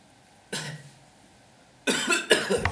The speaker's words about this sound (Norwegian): Og så hoster du ordentlig. Ta ordentlig to hostedrag.